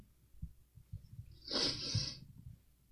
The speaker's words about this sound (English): Bless you.